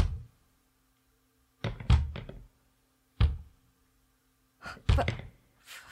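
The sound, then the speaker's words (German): Irregular knocking at night, coming from a stairwell: uneven clusters of sharp knocks separated by pauses of silence, with no one speaking. “Bis des Nachts plötzlich ein ungewöhnlich unregelmäßiges Klopfen die Schuhe weckte.”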